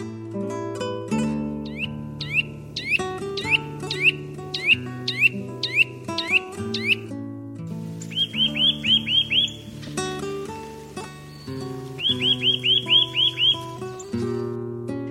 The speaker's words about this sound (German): Das war der Kleiber.